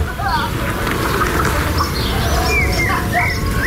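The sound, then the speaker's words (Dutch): A blackbird sings a few fluting, whistled phrases. The notes rise and fall over a steady, rumbling background noise. “En daar hoort hij een merel.”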